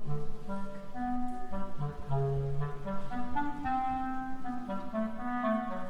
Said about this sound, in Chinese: 单簧管代表大黄猫，